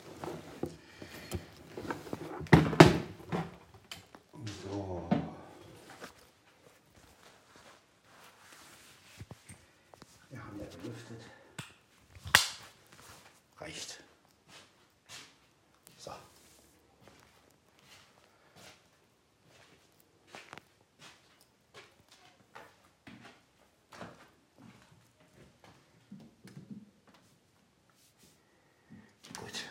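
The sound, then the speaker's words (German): A window is shut with a few scattered clunks and knocks, broken by a shuffle of footsteps and handling noises, moderately loud, then lighter taps trailing off. “dann gleich mal die, die Tür zum, äh, die Fenster zu machen”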